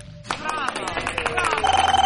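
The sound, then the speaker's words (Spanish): A telephone rings in quick, pulsing bursts that grow more insistent toward the end, rising over a busy, cluttered background of overlapping sounds and voice-like noise. “¿Un teléfono aquí?”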